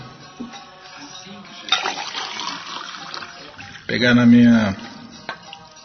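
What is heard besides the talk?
water being poured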